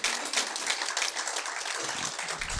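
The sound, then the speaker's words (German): A church audience breaks into sustained applause as a greeting to people at home, a dense, steady wash of many hands clapping together at an even level, with a few faint voices mixed in toward the end. “Lass uns das tun mit einem mächtigen Applaus oder Gruß oder unsere Liebe.”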